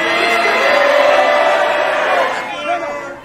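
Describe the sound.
A heckler yells loudly and unintelligibly over a rally crowd, the shouting sustained for about two and a half seconds before tapering off into murmuring voices.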